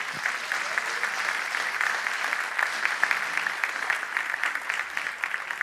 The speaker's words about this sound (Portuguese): Se você crê nisso, aplauda ao Senhor.